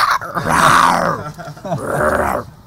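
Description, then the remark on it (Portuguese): A person imitates a lion's roar with two loud, gravelly growling bursts, a long one followed by a shorter one after a brief pause. “não, você é cachorro que eu tô fazendo, leão.”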